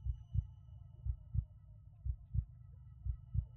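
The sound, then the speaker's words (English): A person's own steady heartbeat thumps in low, muffled double beats, lub-dub pairs repeating about once a second, prominent against a faint background hum with no voices. “I can hear my heartbeat, overly loud in the silence.”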